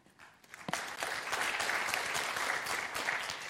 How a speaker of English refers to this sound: So I want you to see if you know this verse by heart. And I want you to clap out loud if you do. And if you don't, please don't be embarrassed.